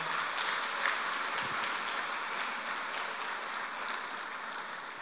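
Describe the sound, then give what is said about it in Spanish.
An audience applauds together in the morning, praising the Lord: a dense, steady wash of clapping that holds evenly for several seconds without a break, with no voices rising above it. “Denle un aplauso al Señor, por favor, en esta mañana.”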